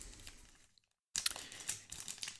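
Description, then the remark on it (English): Crinkly crackling and a brief tearing sound of a Ghirardelli Dark Chocolate Sea Salt Caramel candy wrapper being torn open, pausing for a moment of near silence before bursts of crumpling plastic resume. “I'm going to open this package.”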